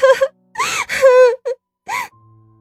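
Heavy panting breaths, about five uneven gasps with a voiced, moaning edge, some short and some drawn out, fairly loud and with no speech around them.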